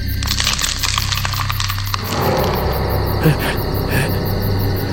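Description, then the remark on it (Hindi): Loud, dense crackling and clattering pours out in rapid snaps for about two seconds, then thins to a softer, scattered crackle with a few sharper clicks over a steady low rumble. It is heard in darkness, its source unseen, and seems to come from beneath the listeners' feet. “तभी अचानक एक जगह पे हमको लगा कि वो आवाज जो कटकटाने वाला जो आवाज है वो तेज हो गया बढ़ गया तो हम रुके”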